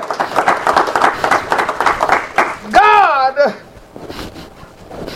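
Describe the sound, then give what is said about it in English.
A crowd claps steadily together for a few seconds in a hand clap of praise to God, a dense, bright patter of many hands, then a voice lets out a long wavering whoop and the clapping fades to a soft murmur. “Give God a hand clap of praise up in here, up”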